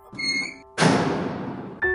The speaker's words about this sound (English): All of them were placed in a big cell it was nearby Leila's old cell, and next to the red-haired woman. After the jailer closed the door,